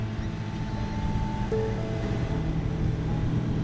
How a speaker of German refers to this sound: Er lenkt das Boot auf eine mit kleinen schwarzen Bojen abgesteckte Fläche zu. Das Wasser ist hier nur etwa einen Meter tief.